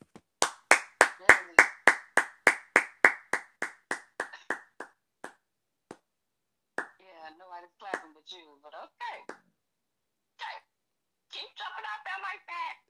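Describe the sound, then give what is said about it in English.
A quick run of about fifteen sharp hand claps in a steady rhythm, starting loud and gradually fading, followed by a pause and then people talking. “I, I, I was thinking she was gonna clap with me, y'all, cause you know”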